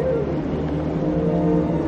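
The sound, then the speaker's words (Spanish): A car arrives at a luxurious building, its engine giving a steady, loud low rumble with a droning hum layered on top, holding constant for the couple of seconds with no one speaking. “Mientras, un coche llega a un lujoso edificio.”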